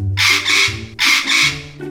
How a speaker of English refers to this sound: This pet is very talkative and has colorful wings. It has a beak and claws and sometimes it even sings. What pet is this? A parrot. A parrot.